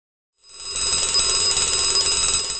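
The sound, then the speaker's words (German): A loud alarm clock rings continuously after a brief silence, a dense, bright metallic jangle that holds steady for the remaining couple of seconds, with no voices. “Der Wecker klingelt.”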